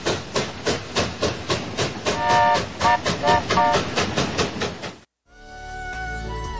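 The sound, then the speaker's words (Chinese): A train on the Alishan Railway running on rails: a fast, steady rhythmic chugging and clatter for about five seconds, with a short burst of high whistling tones midway, then it cuts out into a different, steadier sound. “复工两年后，阿里山铁路在一九一二年十二月二十五日从嘉义通车到二万坪。”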